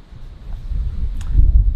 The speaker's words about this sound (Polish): Pozdrawiam Was z tłumu już nie chcę Was umęczać tym wiatrem.